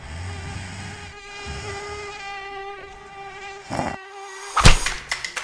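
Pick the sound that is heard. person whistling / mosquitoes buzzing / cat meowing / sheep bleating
mosquitoes buzzing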